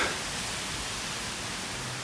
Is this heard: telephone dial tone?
no